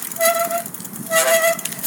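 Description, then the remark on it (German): Two sharp, high-pitched squeals from a bicycle, each lasting about half a second with a short pause between, loud, with no voices. “Ach, jetzt quietscht was quietscht da an dem Fahrrad?”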